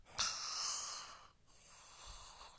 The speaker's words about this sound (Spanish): Todos roncaban.